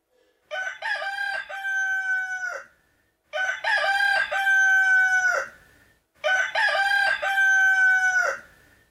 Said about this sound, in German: Und noch während er das sagte, krähte ein Hahn.